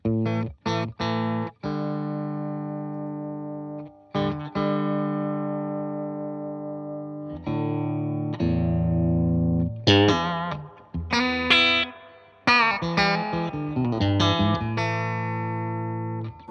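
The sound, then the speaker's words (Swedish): A Stratocaster electric guitar plays through a small, very clean class D amplifier with reverb, its clean chords ringing with long sustain before busier picked and strummed passages near the end. No one speaks. “det är stratta som ni hör”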